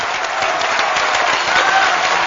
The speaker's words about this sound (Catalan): aplaudiments.